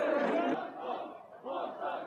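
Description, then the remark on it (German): A large crowd of Bochum football fans cheers and chants in a loud, continuous roar, celebrating on the weekend their team's promotion and second-division title, swelling and dipping in waves with many voices shouting together. “Aber erstmal wollen wir schauen, was dann am Wochenende auf Fanseite so alles passiert ist, da wo es was zu feiern gab.”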